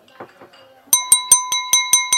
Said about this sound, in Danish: Jeg rejser mig lige op igen. Nu slår jeg lidt på glasset.